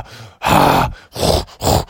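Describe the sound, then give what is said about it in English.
A voice imitates heavy panting, three loud, breathy gasps in quick succession, with short pauses between them and no other talking. “I was just breathing so heavy after that wrestling match.”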